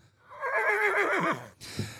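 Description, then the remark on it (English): A horse, taken out of its float in front of a pub and dressed up in Broncos colours, neighs loudly, a long quavering whinny lasting over a second that falls in pitch, followed by a brief snort or breathy huff. “So David has gone out, got his horse out of the float, out the front of the pub, dressed it up in Broncos colours,”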